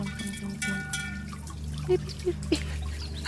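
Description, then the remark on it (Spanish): A steady stream of water falls from a fountain, trickling and splashing, with a few brief, louder plops standing out near the end over the continuous flow. “Sí, el chorro que cae de la fuente.”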